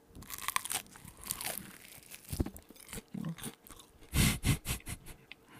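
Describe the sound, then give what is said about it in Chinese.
Crunchy chewing of fried chicken, a run of crisp, crackling bites with a louder, rapid burst of crunches near the end, heard alone without any talking. “各位听众，大家好，你好，你好，你好，让我们一起听一听吃炸鸡的声音。”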